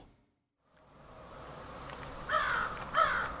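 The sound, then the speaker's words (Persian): Two harsh crow caws ring out in quick succession at dawn, over a low outdoor hum of background noise and faint insect-like buzzing. No one speaks. “صدای قارقار کلاقها نوید صبح شومی را میداد”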